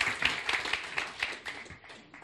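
A short burst of audience applause, many hands clapping in a dense, crackling patter that holds steady and then thins out toward the end. No voices stand out.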